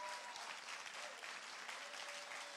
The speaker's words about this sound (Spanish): Si usted lo cree, denle un aplauso fuerte a Jesús.